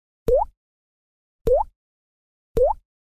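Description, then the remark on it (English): Three wet, bubbly mouth pops with a rising, liquid-sounding pitch, evenly spaced about a second apart, clear with silence between them and no talking; liquid sounds made with the mouth as vocal music. “Or hear some liquid sounds.”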